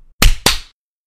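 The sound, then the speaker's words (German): Two sharp, loud hand claps in quick succession, made so the audio can be synchronised, each a bright burst with a short ringing tail, followed by silence and no talking. “Musst du jetzt nicht auch klatschen?”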